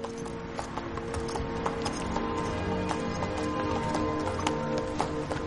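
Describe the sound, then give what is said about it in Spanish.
Horse hooves clip-clop in a steady, fairly quick rhythm as Sven rides his horse outside, with sharp repeated clicks over a dense bed of clattering and rumbling background noise. “Mientras, en el exterior, Sven monta a lomos de su caballo.”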